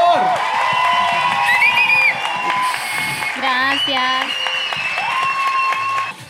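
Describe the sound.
A crowd at an Expedientes Secretos event claps and cheers loudly and steadily for several seconds, applauding a guest who was thanked for coming. High whoops and shouts rise above the applause, and a voice briefly speaks over the noise.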